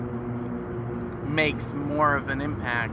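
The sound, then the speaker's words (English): A motorcycle getting on the highway rumbles steadily in the background on a neighborhood street, a low droning hum beneath a person talking in the foreground. “No, that's a motorcycle.”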